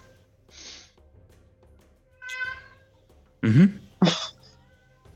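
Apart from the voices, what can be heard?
cat meowing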